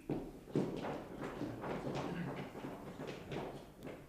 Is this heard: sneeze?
no